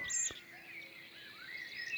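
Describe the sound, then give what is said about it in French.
Dawn birdsong recorded with microphones in a hedgerow on 1 June: a blackbird's melodious phrases mingle with the buzzing, vibrato trills of two loud cirl buntings, overlapping high and fairly soft, while a common cuckoo far off adds a low note, with no voices. “Ce matin, j'ai placé mes microphones dans une haie, et un merle noir au chant mélodieux et deux bruyants zizi au chant en vibrato forment une complémentarité.”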